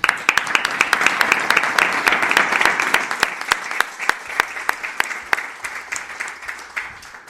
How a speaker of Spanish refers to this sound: Ha sido un auténtico placer y yo quiero daros el último aplauso a vosotros porque os lo habéis ganado y a todos nuestros oyentes en Internet.